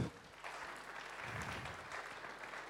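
During a church service before communion, a crowd claps steadily in a round of applause, a dense, even patter of many hands at moderate loudness with no speech over it.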